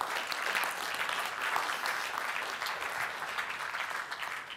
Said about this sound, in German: Hey, ich meine, können wir wirklich mal Applaus geben für die Tafel?